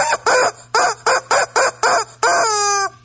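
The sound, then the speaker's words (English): A rooster lets out a quick run of seven loud, choppy calls, then finishes with one long, drawn-out crow that slides downward. No one speaks. “what does, uh, Brewster the Rooster have to say about that?”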